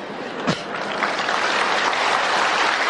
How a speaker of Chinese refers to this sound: 啊，你们这鼓掌是鼓掌那一尊呐，不是鼓掌我。